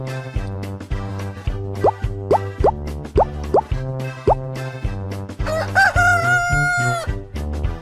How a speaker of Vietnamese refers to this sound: thấy trời sáng gà gáy ó o đua nhau gà gáy gà gáy thật to ó ó ó ó trống thường gáy vào buổi sáng sớm để gọi các bạn nhỏ dậy đánh răng, rửa mặt, đi học đúng giờ